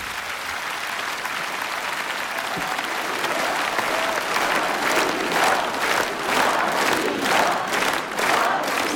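A large concert crowd applauds steadily, with rhythmic bursts of shouting "spasiba" (thank you) rising from the audience toward the end, loud throughout.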